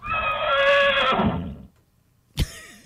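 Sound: horse neighing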